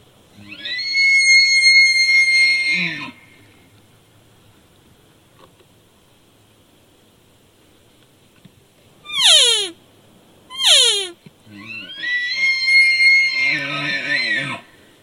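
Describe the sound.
A raspy, high-pitched hunting call used to lure a bull: a long squealing note, a pause, two quick descending whistles, then another long, grating bugle-like blast. No one talks.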